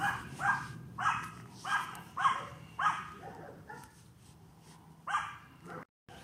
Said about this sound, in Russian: Ну вот, видите, тоже э, я испытал такой микростресс, потому что вот эта шавка вот идет по ночи и гавкает